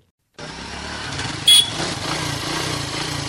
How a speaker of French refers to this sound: Des motos, des taxis-motos, leur nombre tend de plus en plus à augmenter à Conakry, tout comme les accidents avec les engins à deux roues que les conducteurs ne maîtrisent pas toujours